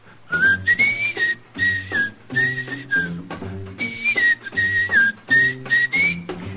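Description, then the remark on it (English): Jazz musician and arranger a musician, whistles a bright, catchy jingle melody in short repeated phrases, clear, over a steady instrumental accompaniment, with no talking. “How about whistling along with him?”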